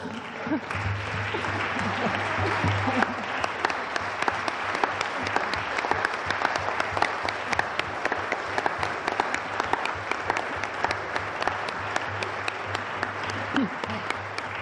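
Sustained audience applause for about fifteen seconds, thanking participants for a citizens' report (Bürgergutachten), a dense, even wash of many hands clapping at steady loudness, with a faint low hum underneath.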